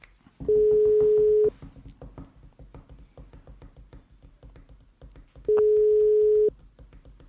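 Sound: phone call ringing tone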